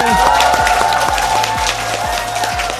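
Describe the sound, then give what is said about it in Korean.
A live in-person audience at the radio program Im Baek-cheon's Baek Music applauds and cheers loudly and steadily for a few seconds, a dense wash of clapping with regular low thumps pulsing beneath it. “이게 얼마만이에요? 대면 박수 환호 소리요.”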